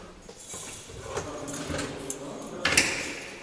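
A heavy prison door to the stairwell is unlatched and swung open by a female guard, with a clank of metal and a scraping slide, then a sharp clunk near the end.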